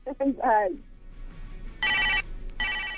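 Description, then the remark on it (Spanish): A brief voice at the start, then an electronic phone ringtone sounds in two loud, bright bursts with a short gap between, a 2000s-style mobile ring for an incoming call, typical of a phone with buttons. “Aquí tenemos otra llamada con ese ringtone muy de los años 2000, ¿eh?”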